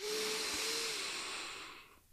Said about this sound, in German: Also können wir jetzt mal zusammen mhm. machen. Mhm. Tief durch die Nase einatmen.